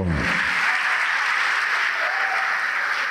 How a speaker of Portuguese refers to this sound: E vamos aplaudir o Senhor, Rei fiel.